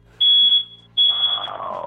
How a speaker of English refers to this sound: You got a smoke detector going off? Yeah, I don't know.